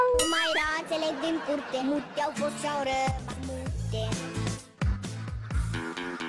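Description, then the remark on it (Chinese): A voice imitates a cat's meow with high, sliding pitch, followed by more voiced sounds and a busy, fairly loud backdrop that continues throughout. “你还要让你老公每天跟你喊喵，这个挺兽性的，喵。”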